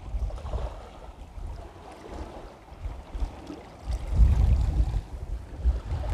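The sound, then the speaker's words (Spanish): Sea waves heard from a seaside garden under a palm tree on a sunny day with a faint breeze wash steadily, a constant broad rumble with gentle swells and one stronger surge partway through, with no voices. “Sí, Estoy escribiendo en el jardín, sentada frente al mar y bajo la palmera.”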